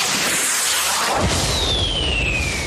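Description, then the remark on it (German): Fireworks going off: a dull boom bursts out of a steady crackling hiss, followed by a long, high whistle that slowly falls in pitch. No one speaks. “Zum Beispiel zum Thema Feuerwerk.”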